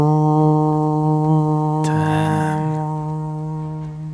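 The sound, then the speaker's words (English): A deep war horn, blown by a seriously wounded orc, sounds one long, steady, droning note that holds for several seconds. A brief rough burst sounds partway through before the blast slowly fades. “He pulls this horn up to his mouth.”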